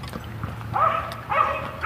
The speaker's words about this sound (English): another yappy dog. The uh, the neighborhood seems to be collecting yappy dogs. The lady behind me has two,